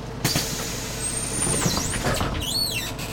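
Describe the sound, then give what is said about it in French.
A morning bus pulls up, its engine rumbling steadily under high, whining brake squeals that bend downward in pitch as it slows. No voices. “Tous les matins, Clément prend le bus.”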